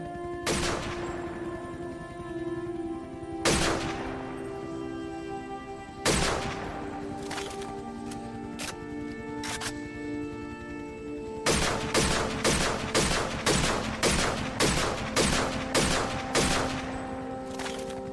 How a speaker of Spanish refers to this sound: Los tiros salían de muchas direcciones y las ráfagas de las ametralladoras zumbaban en todas partes.